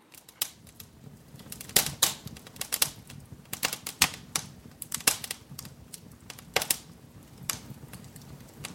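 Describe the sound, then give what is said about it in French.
A fire crackles steadily on its own, with sharp irregular pops and snaps over a soft low rumble, some louder cracks standing out. “Euh, le feu qui crépite, c'était ça votre choix.”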